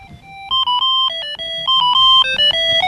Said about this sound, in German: Oh Mist, ich habe mein Handy nicht abgestellt. Oh Scheiße.